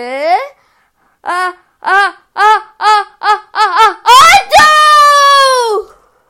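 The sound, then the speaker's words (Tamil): A voice imitates the world's biggest sneeze, made by Gajapathi Kulapathi: a string of short, rising gasps builds quickly into one long, loud, drawn-out blast, alone with no other sounds. “அந்த சத்தம் இப்ப இன்னும் அதிகமாச்சான் ஒருவேளை வானமே இடிஞ்சு விழுந்துடுச்சோன்னு யோசிச்சாங்களாம் ஆனா அது என்ன சத்தம் தெரியுமா அதுதான் உலகத்திலேயே பெரிய தும்மல்”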